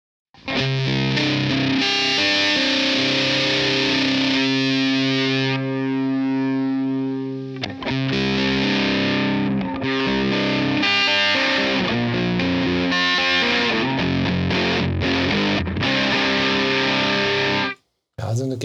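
Heavily distorted electric guitar played through a Rat distortion pedal with a lot of gain, loud, rings out sustained chords and single notes continuously for about seventeen seconds before cutting off abruptly.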